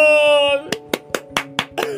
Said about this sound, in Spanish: ¡Aplausos!